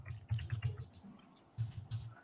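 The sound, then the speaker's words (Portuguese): Soft computer mouse double-clicks on an on-screen item come in a quick cluster, then pause before another short pair of taps, all quiet and dry, with no talking. “Então, vou dar dois cliques preparar”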